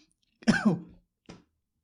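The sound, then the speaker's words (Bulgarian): A fairly loud throat-clearing cough: one rough, voiced burst lasting about half a second, then a brief pause and a shorter, softer cough. No talking. “Днеска кашляш, но притесняваш ме.”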